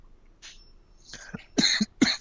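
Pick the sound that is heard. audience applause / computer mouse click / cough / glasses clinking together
cough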